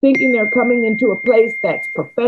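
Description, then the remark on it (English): A steady high-pitched electronic beep tone from a phone holds for nearly two seconds beneath a man speaking, quiet but continuous, a phone alert sounding during the conversation. “I'm sorry that my phone does this.”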